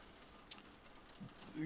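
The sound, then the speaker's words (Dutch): Soft, steady patter of hail on a surface with one sharper tap partway through, faint and continuous over a low background murmur. “Dus, oei, oei, even aan het hagel.”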